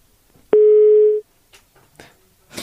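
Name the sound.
telephone busy tone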